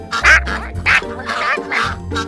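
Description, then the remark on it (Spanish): Several ducks quack in a noisy overlapping chorus, about five loud nasal calls in quick succession, with no talking. “Y soltó otro graznido mientras los patos coreaban.”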